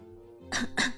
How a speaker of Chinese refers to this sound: 苏哲一脸尴尬，咳嗽一声说道